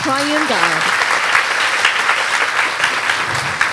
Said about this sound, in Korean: 우리 성삼위 하나님께 영광의 박수를 드리겠습니다.